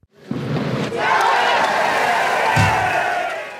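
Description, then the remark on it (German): A large crowd roars and cheers continuously at the 2019 Fischertag, a town festival where the town stream (Stadtbach) is fished out. It is a dense wall of shouting voices that swells after a brief start, with a few sharp thuds or splashes beneath the din. “Beziehungsweise klang es bei der letzten Auflage des Fischertags 2019.”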